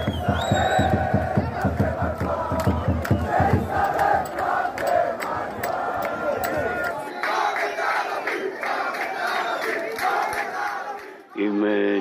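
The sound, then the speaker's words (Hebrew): A large crowd chants loudly at an Israeli flag parade, recorded in footage filmed at a past parade. Voices shout in rhythmic unison, then the chanting loosens into a steady roar of many voices before cutting off abruptly. “הגענו עם סרטים, סרטונים, שצילמנו במצעדים שעברו.”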